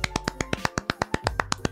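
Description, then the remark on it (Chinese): Quick, evenly spaced hand claps celebrating a channel's first sponsorship deal, about fourteen sharp smacks in under two seconds, forming a brisk steady rhythm on their own with no voices. “好，那在节目开始之前，先跟大家宣布一个好消息，也就是我们频道接到了第一个业配，拍手。”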